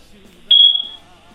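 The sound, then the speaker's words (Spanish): A single short, high-pitched electronic chirp, the low-battery beep of a smoke alarm, sounds once loudly and fades over half a second against a quiet background with faint low murmuring. “Hay te voy a traer unas pilas para la alarma.”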